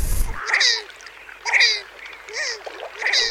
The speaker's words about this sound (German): aber schauen Sie sich mal an, den Mittelsäger. Das ist ein super schöner Vogel. Erstaunlich, dass er in acht Jahren Vogel der Woche hier noch nie vorgekommen ist. Akustisch eher unspektakulär.